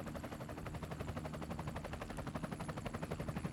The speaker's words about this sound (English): Okay, what is that helicopter? Calm. What is the helicopter doing? Calm, everything's okay. Why is there a helicopter? Stay calm. Why is there a helicopter out here